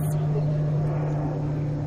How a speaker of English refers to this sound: I looked up because I heard airplanes. oh yeah, sorry. Um, I'm recording. My computer's outside right now, and there's an airplane above me.